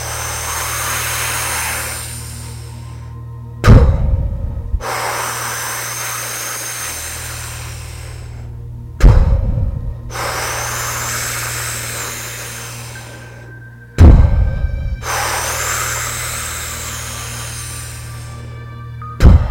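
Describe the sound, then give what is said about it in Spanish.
Slow, deep breaths drawn in and pushed out in a steady rhythm, airy, with roughly four long breath cycles separated by brief pauses and no talking, during a breathing exercise in which the breath is directed toward the head. “No respiro con la cabeza, pero mando mi respiración hacia la cabeza.”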